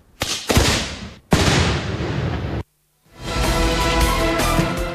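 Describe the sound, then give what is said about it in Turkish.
Several loud, sharp blasts of sound bombs set off in Bursa, Turkey, during Ramadan in place of drums, burst in quick succession, each trailing into crackling noise; after a brief silence, a noisy, clamorous din follows. “Bursa'da ise davul yerine ses bombası patlatıldı.”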